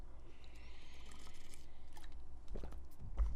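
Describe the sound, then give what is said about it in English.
A quiet sip of coffee: a soft, airy slurp lasting about a second, followed by a few faint mouth clicks and a small swallow over a low background hum. No one speaks. “Back to the speech after my sip of coffee.”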